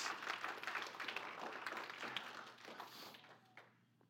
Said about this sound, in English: Come on, somebody. That's worth giving God a hand clap of praise in this place.